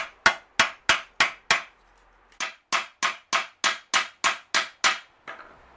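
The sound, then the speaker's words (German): A hammer peening a hand scythe blade, thinning the metal toward the cutting edge: six sharp, bright metallic taps in steady rhythm, a brief pause, then about ten more evenly spaced strikes, each ringing briefly. No talking. “Also ich fange da jetzt mal an zu klopfen.”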